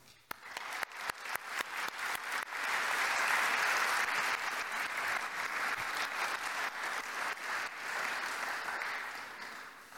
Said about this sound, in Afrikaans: Dankie vir julle opofferings. Kom ons klap vir al hierdie mense dankie.